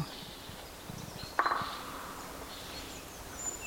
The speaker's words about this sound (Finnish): Se on vähän kaukaa, mutta kuuluu lyhyt kuitenkin. Aika lyhyt rummutus käpytikalle. Mutta sellaisia ne välillä on.